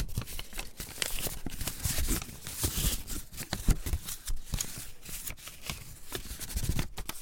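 Paper rustling and crinkling, recorded with a high-sensitivity microphone, a steady stream of dry, crisp handling sounds with sharp little snaps, no voices.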